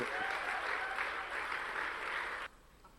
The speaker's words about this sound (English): Oh, your clapping is like some old men in the house.